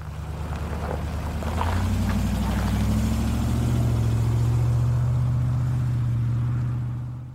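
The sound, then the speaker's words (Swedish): A Range Rover engine revs up under kickdown acceleration, its low drone climbing in pitch and holding steady and loud, with no talking over it. “Trött acceleration förpackat i en Chesterfield-grupp. Vid kickdown ändrades egentligen bara varvtalet.”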